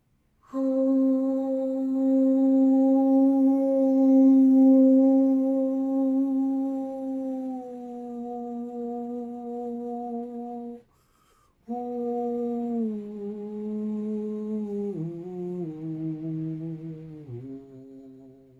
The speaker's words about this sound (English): I sort of did a melody there. You don't have to do a melody, but just finding a, a sound, a vowel sound. I did ooh, ooh, ooh.